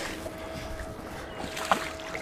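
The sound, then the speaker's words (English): Water splashes and laps steadily against a fishing boat, a continuous soft wash with a low rumble beneath and one brief sharper splash near the end. “I love to hear that water”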